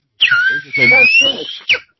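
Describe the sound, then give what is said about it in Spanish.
A person imitates a whistling firework with a sharp, high whistle that swoops down then drifts slowly upward, ending in a short rising squeal, with voiced murmuring mixed in beneath. “Mire, conozco una gente que uno de esos silbadores, ¿cómo le llaman? Para todo, Sanchinflines.”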